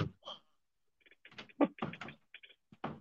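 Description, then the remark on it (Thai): A series of irregular knocks and thumps on a door during an online meeting, coming in short clustered bursts with brief pauses between them, moderately loud. “ได้ยินเสียงเคาะประตูไหมครับ ตัวอะไรจะผ่านเข้ามา I'm on a meeting okay no no no”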